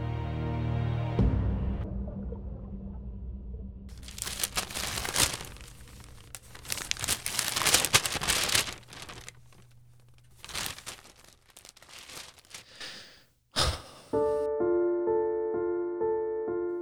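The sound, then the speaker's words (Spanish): A newspaper is rustled and folded shut after being read, in a run of loud, irregular crinkling and crackling bursts lasting several seconds, preceded by a low hum and followed by a sustained musical tone. “Cierra el diario luego de leer que se cerró el pacto.”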